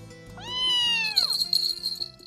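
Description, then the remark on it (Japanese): A pet cat named Pete lets out one clear, drawn-out meow, fairly loud, its pitch sliding downward at the end, followed by faint rustling and a soft high ringing. “ペットも入れる温泉もあるけどピートお前も一緒に行くかあそっかお前は風呂が苦手なんだっけな”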